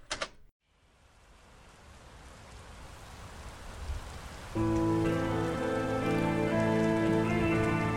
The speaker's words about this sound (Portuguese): Como a gente disse sobre ambientação, começa bem com isso, né? É, chuvinho. Uma chuva.